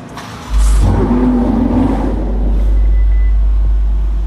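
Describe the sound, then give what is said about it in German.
A bright red Ferrari 488 sports car engine starts with a sudden loud roar and then holds a deep, rumbling rev, steady and powerful with no voices, as the car is driven out of a vehicle hall. “Der Besitzer heißt Adriano und lenkt das gute Stück aus einer Fahrzeughalle heraus.”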